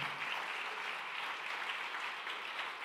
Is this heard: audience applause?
yes